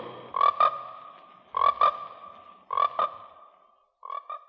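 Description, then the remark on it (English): Frogs croak in four loud, rasping bursts spaced about a second apart, each a quick double pulse with a lingering trill, the last one slightly fainter, with no voices present; from the trailer for the American International Pictures film Frogs. “Frogs, today the pond, tomorrow the world.”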